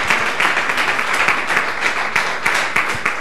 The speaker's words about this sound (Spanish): Dale un aplauso a la palabra de Dios.